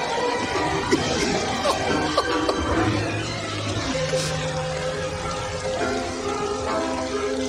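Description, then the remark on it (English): Dense, steady hiss of heavy rain pouring down at night for the whole stretch, with scattered splashes and clatters and a faint low tonal hum beneath. “followed by a mysterious r- woman running through the rainy night.”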